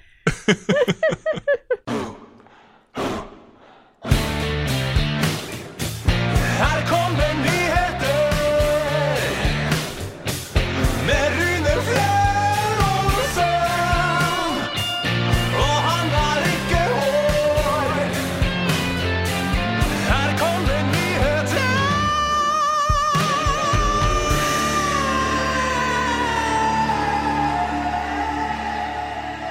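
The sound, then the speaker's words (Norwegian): A news segment jingle: choppy, stuttering bursts open it, then full, loud music with a driving beat and bright melody runs steadily for about half a minute, with no talking. “Ja, den der eh, nye vignetten vår har blitt min nye teamlåt.”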